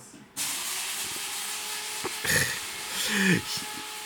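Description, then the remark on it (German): A coffee machine brewing, starting abruptly with a steady, loud steamy hiss that carries throughout, broken by two louder sputtering, gurgling bursts toward the middle and end. “Ähm, ich mache mir gerade nebenher, ich mal gerade nebenher noch kurz einen Kaffee, dann habt ihr noch schnell einen Motorradsound auf dem Ohr.”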